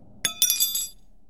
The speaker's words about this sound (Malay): Serta merta sudu yang dipegangnya jatuh.